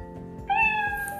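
A single clear cat meow rises partway through, close and fairly loud, with a harmonic, slightly drawn-out tone over a low background hum.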